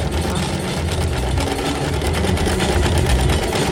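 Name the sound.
sewing machine running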